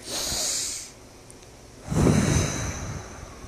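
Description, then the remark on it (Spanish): A deep, airy breath drawn in through the nose, a short pause, then a longer, fuller exhale with a soft rushing hiss that gradually fades. “Mi cabeza deja de pesar y sigo respirando profunda, profundamente y suelto ese aire.”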